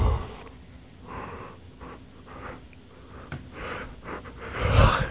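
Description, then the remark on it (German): A drawn-out yawn on the radio, made of soft breathy inhales and exhales, rising into a louder, rougher gust of breath near the end, with no talking. “Darf man denn nicht mal ein bisschen gähnen im Radio?”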